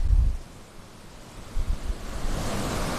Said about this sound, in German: Ne, es rollt hier wirklich an. Das ist. Das hat auf jeden Fall mindestens Ostsee-Feeling, was die Wellen betrifft.